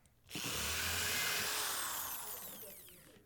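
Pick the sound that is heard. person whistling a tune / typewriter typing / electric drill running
electric drill running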